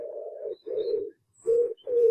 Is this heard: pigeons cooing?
yes